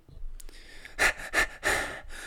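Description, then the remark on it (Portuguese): Someone imitates the rapid, anxious hyperventilation of a woman seated beside them on an airplane during takeoff: three loud, breathy gasps in quick succession, the last one drawn out, after a brief quieter breath. “tipo, começava assim, tipo, a hiperventilar.”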